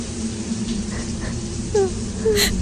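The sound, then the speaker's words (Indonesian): A woman's faint crying and wailing, heard as a couple of short, drawn-out moaning cries over a steady low background hum. “Dari tadi ada suara cewek nangis.”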